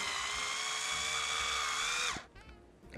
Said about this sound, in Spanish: ¿Estás este, taladreando? ¿Qué onda, Perdóname, estaba, estaba abriendo mi, mi botellita.